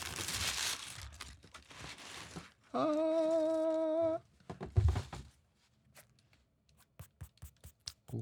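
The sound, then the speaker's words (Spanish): Paper crinkles and rustles in bursts as Puma Slipstream sneakers of high-quality leather are unboxed, broken by a long sung-out voice, then a few sharp taps and soft handling noises. “Para este asmer de unboxing de el Puma Slipstream.”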